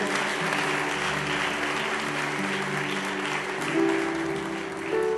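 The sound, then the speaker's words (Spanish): A church audience claps steadily for about five seconds, applauding people who have overcome; a dense, even applause that swells slightly near the end, with sustained keyboard-like tones holding underneath. “Un aplauso para estos guerreros y guerreras.”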